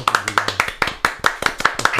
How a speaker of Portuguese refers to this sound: Parabéns. Palmas aí, galera.